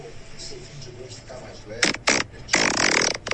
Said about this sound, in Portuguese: Mostra o último peido aí, então